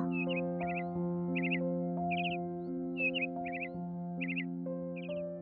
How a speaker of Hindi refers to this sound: मोर ने अपने मुंह से उसकी गोद में कुछ गिरा दिया और खिड़की से आवाज करता हुआ चला गया